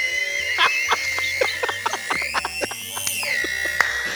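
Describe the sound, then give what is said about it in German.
A broken machine with a paper-feed problem whirs steadily with a high mechanical whine while irregular clicks and clacks rattle through it, like a jammed printer, running on without stopping and no one speaking. “Wenn ihr das ist wie Drucker beim Drucker. Einzugproblem. Jetzt hört er nicht mehr auf zu.”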